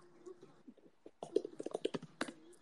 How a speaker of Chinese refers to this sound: 对，打字声音这么小啊？ 嗯，你打字声音小我也听到了啊。